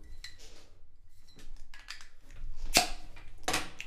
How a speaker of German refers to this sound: Sollen wir da so ein Bier auftun? Ja, vielleicht.